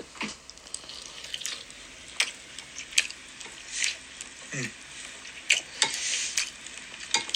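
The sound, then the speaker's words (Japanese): Chewing of a thick, square rolled omelette made with dashi and Korean seaweed inside: soft, moist squishes and smacking bursts come in an irregular rhythm for several seconds, with no one talking. “ちょっとここからは咀嚼音がありますんで、苦手な方はお聞きにならない方がいいかと思います。”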